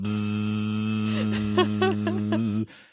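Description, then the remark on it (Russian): A voice imitates a buzzing fly with a steady, droning hum that wavers in pitch a few times, held for a couple of seconds before cutting off abruptly. “Она такая, такая тишина в классе. Такая, только такая муха слышно.”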